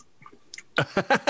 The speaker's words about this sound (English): Why are you chewing like a horse?